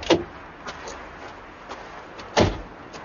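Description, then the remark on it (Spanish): A car stops beside some trees on a street; a door opens with a sharp thump, a few faint clicks and rustles follow as a man gets out, then the door shuts with a second heavy thud. No one speaks. “Bobby baja del coche y camina hacia la casa de Cheryl.”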